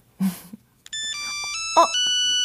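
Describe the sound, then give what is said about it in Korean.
A telephone rings with an electronic ringtone for an incoming international call: bright, sustained tones stepping between pitches in a simple melody, steady and fairly loud, following a short burst of sound at the start. “국제 전화? 아, 집이겠다. 어, 빨리 받으세요.”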